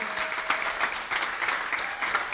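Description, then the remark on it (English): A crowd gives another round of applause for a band, a dense wash of many hands clapping steadily at a fairly even level throughout, with no voices standing out above it. “Y'all give another round of applause for this wonderful man, this great … band.”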